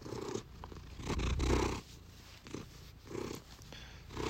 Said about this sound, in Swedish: Ni hör hur Puff spinner.